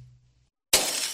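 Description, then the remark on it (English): After a brief low hum and a moment of silence, glass suddenly shatters with a loud crash as a gang of thieves ransacks and trashes a house, the bright breaking sound sustaining to the end. “That's the sound of a house being trashed while a gang of thieves ransack the place.”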